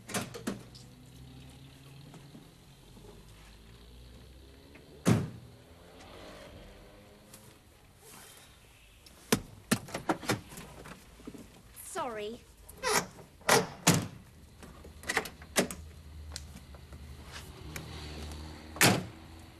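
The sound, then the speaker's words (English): Someone climbs into a car: a sharp door thud near the start, then a series of clunks, rustles and clicks as seats and doors are handled, with a brief whirring sound midway. “Let's get in.”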